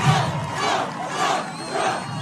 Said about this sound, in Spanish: La gente, escucha a la gente gritando Trump, Trump, Trump. Escucha, escucha, escucha